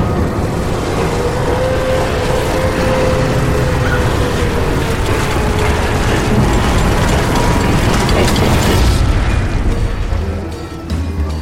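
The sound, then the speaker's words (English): Heavy cemetery gates being locked at sundown as night begins: a loud, continuous grinding, rumbling clatter of metal with a faint drawn-out creak, sustained for about ten seconds before easing off slightly at the end. “This will serve as the official announcement that the gates have been locked and the night has begun.”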